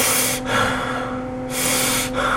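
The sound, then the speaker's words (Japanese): A voice imitates a teacher's heavy, labored breathing, audible from nearly a meter away: two loud, drawn-out breaths with a pause between, each a rough, noisy rush of air, and no words spoken. “そしてあの呼吸音をかなりあの1メートル近い距離からも呼吸音が”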